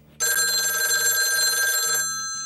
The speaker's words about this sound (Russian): Минуточку, я только на телефонный звонок отвечу.